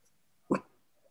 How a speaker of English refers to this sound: Hopefully she doesn't bark too much. That should be all right. I have a puppy and she's a mess.